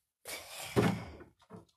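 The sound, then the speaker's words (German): A door is opened to let in the family dog waiting outside: a broad rushing scrape, then a dull knock near the middle, followed by a couple of soft clunks as it settles, with no talking. “Ich da jemanden reinlassen, der vor meiner Tür steht, hat vier Pfoten und jetzt könnt ihr dreimal raten, wer es ist.”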